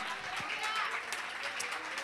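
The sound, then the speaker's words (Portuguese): A church audience applauding the Lord Jesus vigorously, a dense, steady wash of many hands clapping that holds at an even, fairly loud level throughout, with some voices blending in underneath. “Aplauda mais forte, amém?”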